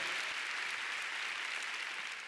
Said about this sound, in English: Why don't we just give the new board and give this management a big clap? Hallelujah. Come on, give them a big hand. Let them know that we love them, we support them.